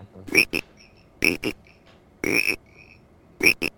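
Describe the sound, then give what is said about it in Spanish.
A frog croaking sound effect: four loud, raspy croaks, most split into quick double pulses, spaced about a second apart with short quiet gaps between, with no talking. “Rana. Bueno, se supone que es un sapo, pero no tengo, así que...”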